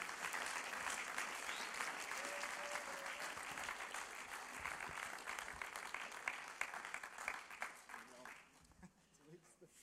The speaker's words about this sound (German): Und wenn jemand gut auf die Bühne kommt, dann geben wir einen guten Applaus, okay?